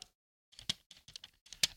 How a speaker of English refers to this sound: Ooh. That is the sound of real money.